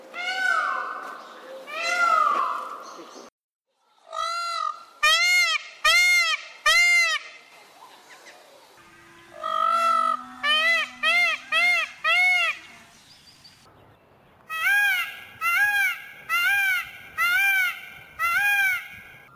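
Loud peacock calls ring out in several quick bursts of three to five piercing, wailing cries, with short pauses between groups and no one talking.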